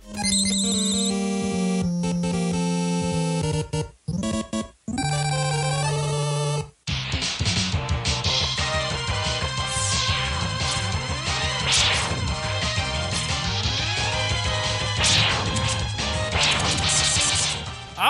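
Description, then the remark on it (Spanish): A rapid barrage of bleeping, chiptune-style retro video game sound effects from a Nintendo console game first released in 1987. Buzzy tones, laser zaps and crunchy blasts pile up densely and loudly, briefly cutting out before resuming. “Con los sonidos que escuchábamos cada vez que tomábamos los controles, la palanca y apretábamos los botones.”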